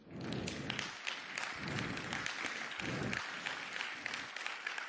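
Sustained applause from a church audience during a sermon, for the man who supported the sermon with lighting. It is a dense, steady crackle of many hands clapping at once, with a few heavier thuds mixed in, lasting the whole few seconds without any talking.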